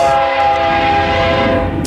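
A train rumbles past while its horn sounds one long, steady, loud chord throughout, over a continuous mechanical roar. No voices are heard.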